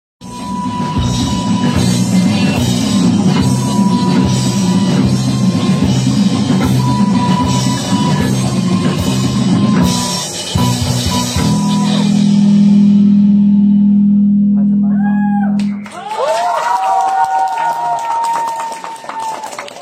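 A dense, loud wall of distorted band sound gives way to a droning sustained note, then to squealing electric guitar noise with wavering, sliding pitches that bend up and down.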